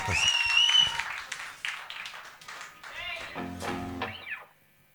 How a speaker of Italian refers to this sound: un applauso cazzo eh, ragazzi grazie fatemi sentire